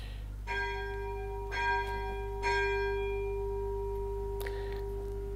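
A church bell tolls three times at steady intervals as 5 o'clock arrives, each strike leaving a long humming resonance that lingers and fades, over a low background rumble.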